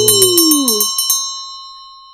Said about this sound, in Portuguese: Sininho do processo!